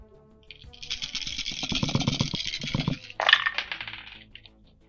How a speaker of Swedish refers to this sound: då slår vi här. Vi har nio tärningar.